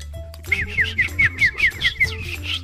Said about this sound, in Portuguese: dando dando comida pros pombos e pombos. chamando os pombos com com o assobiozinho. É o Mike Tyson.